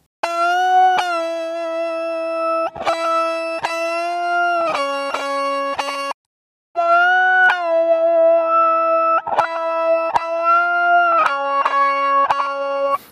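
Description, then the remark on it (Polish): A Les Paul electric guitar played through an emulated auto-filter effect modulated by an LFO, then an Orange amp emulation with a 2x12 cabinet and SM57 microphone in the Tonex plugin, ringing out sustained, harmonically rich chords in two long phrases split by a brief silence, loud with no talking. “Ja jednak zagrałem tę solówkę na gitarze Les Paul, podobnie jak pozostałe partie gitarowe, tu używając emulacji łami. Efektu autofilter z modulacją za pośrednictwem LFO,”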